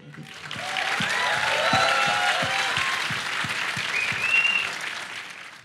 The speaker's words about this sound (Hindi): एक बार पहले दिव्या दत्ता के लिए ज़ोरदार तालियां हो जाए मेरी तो बहुत ज़्यादा फेवरेट एक्ट्रेस हैं